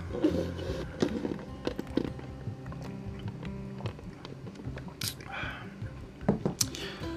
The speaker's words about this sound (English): Take a little sip of water here.